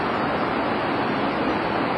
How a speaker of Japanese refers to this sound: 大英の前ですねここはあの人のいないまだ開店前の大英の前で喋、えー、っています意外とあの車通りが多くてうるさいかもしれないんですけど